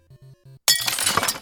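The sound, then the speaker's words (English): Three soft, low thuds are followed by a sudden, loud crash of a window shattering as a thrown newspaper breaks it, with bright, jangling shards of glass tinkling and scattering for nearly a second afterward. “There's glass in my eye! Jesus Christ, Bucky! cool it with the newspapers in the window.”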